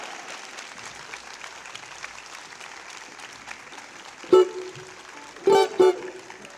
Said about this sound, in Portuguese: Minhas baianas! Salve de palmas para elas!